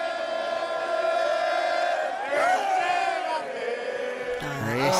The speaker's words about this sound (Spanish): Ese sí. Ese sí. Muy bien, ese sí. Ese es el grito que se tiene que escuchar pues en las gradas del fútbol mexicano.